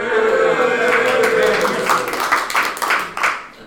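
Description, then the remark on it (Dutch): A small live audience of twelve people in a hall applauds, with scattered, uneven claps over a steady wash of crowd noise and voices, the clapping thinning out toward the end. “Eh, eh, ja, iedereen is heel braaf en stil, maar laat je even horen, want eh, dat we in ieder geval weten dat er twaalf mensen zijn.”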